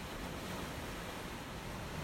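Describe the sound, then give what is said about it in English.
A steady, broad wash of sea waves rolling in below cliffs, a continuous hissing roar with no distinct breaks and no voices. “The sea moves, it undulates, alive reflections and refractions of the sea on the sky.”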